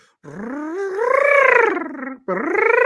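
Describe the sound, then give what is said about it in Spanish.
A voice imitates a small dog whining: a long, wavering, nasal whine that rises and sags, then a brief pause and a second shorter whine, fairly loud. “Oh, oh, ¿no te digas el pincho que encima cuando es perro chiquito es el.”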